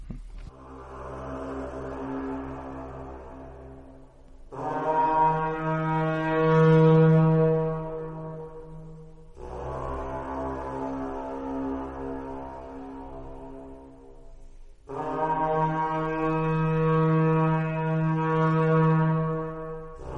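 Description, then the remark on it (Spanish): A carnyx, an ancient Celtic bronze war horn, sounds long, rich brassy blasts in four sustained phrases, alternating between a softer, lower tone and a louder, fuller one, with a deep droning resonance throughout. “Vamos a, vamos a escuchar precisamente un corte donde protagonista en este caso es el Carnix.”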